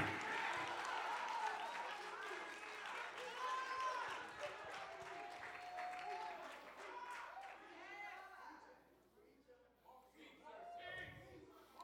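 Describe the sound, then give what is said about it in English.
An audience claps hands steadily for about twelve seconds to thank the Lord, a dense, continuous patter of many hands, with voices calling out and cheering over the clapping before it thins slightly toward the end. “Put your hands together and clap your hands and tell the Lord, thank you.”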